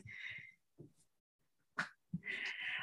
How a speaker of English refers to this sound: Sorry, my dog's going crazy right now.